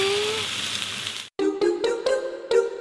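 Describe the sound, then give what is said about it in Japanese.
Steady, dense sizzling of steak on a hot grill, fairly loud, then a brief cut to silence followed by several crackling, popping bursts of frying with a warm tonal hum underneath and fireplace sounds mixed in behind. “タンドで焼くステーキ贅沢です”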